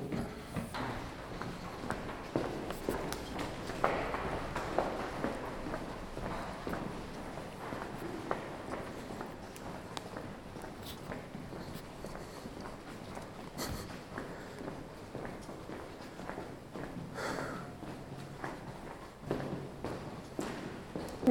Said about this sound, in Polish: Dobra, trzeba zejść ze schodów. Schody są, proszę Państwa, teraz, teraz przechodzę jeszcze niżej i postaram się z tą głową wyjść na dwór.